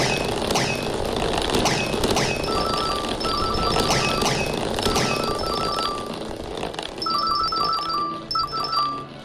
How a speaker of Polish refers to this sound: Ten dźwięk ty, ty, ty, ty, to znaczy, że jest, że piłeczka trafiła tam, gdzie powinna trafić.